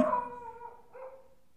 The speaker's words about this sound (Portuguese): Ó. Ó, a porra do cachorro que eu já odeio. A gente odeia. Não odeio o cachorro, odeio o ser humano que é dono desse cachorro